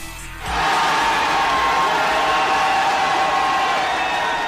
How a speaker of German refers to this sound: Sowieso war die neue Blizzard Arcade ein gelungener Rückzugsort vom restlichen Getöse. Und apropos Getöse, ihr wart ja noch gar nicht in der E-Sports-Halle.